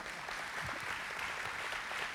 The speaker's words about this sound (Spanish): Sí, dele un aplauso al Señor, esto está para darle un aplauso al Señor.